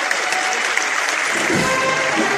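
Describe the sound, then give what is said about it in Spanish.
A street crowd on Calle Pureza in Triana applauds as the silver pallium float of the Esperanza de Triana procession enters on Good Friday morning, a steady wash of many hands clapping at once, dense and continuous with no individual claps standing out. “ya está dentro, ya le da la sombra completamente a todo ese paso de palio que brillaba plateado y esos aplausos de toda la plaza, de toda la calle Pureza”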